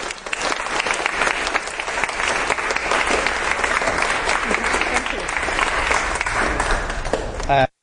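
An audience applauds steadily for several seconds to thank a speaker, a dense, even wash of many hands clapping at a constant loudness before it cuts off abruptly near the end.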